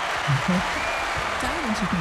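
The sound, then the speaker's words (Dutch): Steady, dense applause fills the whole stretch as a continuous crackling wash of clapping, with a voice talking over it in short phrases. “Dit klinkt nog wel heel erg David Letterman eh, applaus, maar ja, het, het werkt wel inderdaad.”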